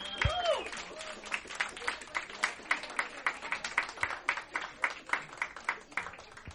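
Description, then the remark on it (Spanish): An audience at a live interview applauds the guest with a steady stream of sharp, crisp claps that stay at an even loudness for several seconds, with a brief high vocal whoop near the start. “Un aplauso muy fuerte de nuevo”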